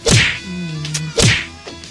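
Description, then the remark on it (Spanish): Two sharp whip cracks land about a second apart, each a bright, snapping lash with a quick whoosh, loud, with a faint buzzing tone lingering between them. “Ah, te vamos a seguir hasta el monumento de la bandera latigazos.”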